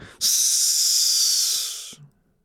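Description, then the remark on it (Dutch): One long, forceful compressed-breathing exhale pushed through pursed lips as a valve, keeping tension on the core while focusing before firing five shots, a steady bright hiss lasting under two seconds that starts abruptly, holds firm, then tapers slightly before cutting off. “Ja, compressed breathing met een, met een, of een, een, ventiel, hè?”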